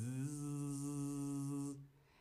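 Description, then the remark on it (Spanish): A voice imitates a mosquito's whine with a steady, nasal buzzing hum held for nearly two seconds, fairly loud, before breaking off and fading. “Mm, muchos decís que es el sonido de un mosquito, pero el mosquito sería más como...”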